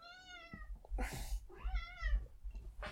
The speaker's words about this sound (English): Oh, and my cat's my cat's screaming at me.